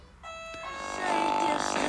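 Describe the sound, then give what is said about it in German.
A doorbell rings with a bright, sustained chime tone that starts suddenly and holds steady, then blends into a louder, noisier wash of sound toward the end. “Jetzt klingelt es hier, aber das soll euch erstmal nicht verdrießen.”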